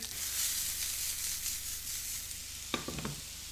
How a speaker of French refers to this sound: Je me brûle, je me brûle. Ça commence à crépiter.